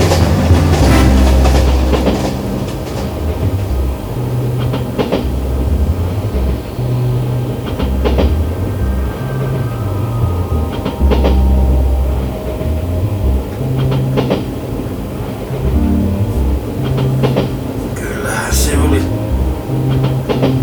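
A train rumbles steadily along the rails, its wheels clacking over the joints in a repeating rhythm, loud throughout with a deep continuous drone underneath.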